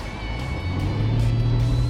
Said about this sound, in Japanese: 窓を開けてみますはいこれがポルシェのパワーです